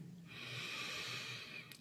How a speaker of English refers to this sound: Let's take a big breath in